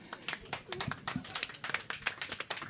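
Sparse, scattered applause from a small part of an audience answering whether they have ever followed highway roadside signs to go buy something: a few people clapping irregularly, quiet and thin, with a faint murmur of voices underneath.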